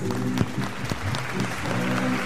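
An audience applauds steadily at a recording of the Programa Ori at Mercadão de Madureira, welcoming a woman invited to open the gira by singing. It is a dense, even patter of many hands clapping at once, with a faint murmur of voices mixed in underneath.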